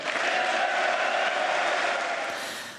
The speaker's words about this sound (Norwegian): Ja, Det var ikke ende på den applausen der